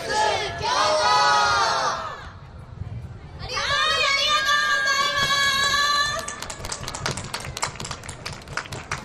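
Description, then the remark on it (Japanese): A crowd at a stage event shouts the radio station name "Radio Mix Kyoto" together in unison as a station sound logo, loud, in two bursts separated by a brief pause, followed by scattered clapping and cheering. “大きな声がですねはいますね大きな声で皆さんありがとうございます”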